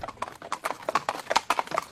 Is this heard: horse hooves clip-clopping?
yes